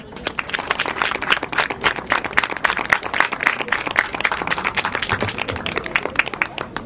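Sustained applause from an audience for everyone who took part in a radio programme, a dense wash of many hands clapping steadily at an even loudness for several seconds, with no pause or fade.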